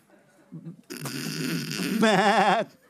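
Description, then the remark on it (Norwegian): A person imitates a snoring sheep, a rough, rasping snore-like breath that breaks into a wavering, quavering bleat, fairly loud, lasting about two seconds. “Nei, for hvis de skulle snorke, hvordan skulle det vært da? Sånn”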